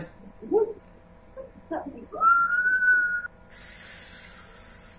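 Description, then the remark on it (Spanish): Someone whistles a short, eerie tune: a few soft opening notes, then one long, slightly wavering high note that stops abruptly, followed by a steady airy hiss. “Me va a quedar aquí. Ese silbidito. ¿Te puedes sentar el silbito otra vez?”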